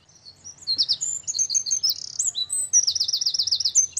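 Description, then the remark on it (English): A wren sings a loud, rapid, high-pitched song of tumbling notes and fast trills, ending in a rattling run, with a faint low rumble underneath. “The Wren”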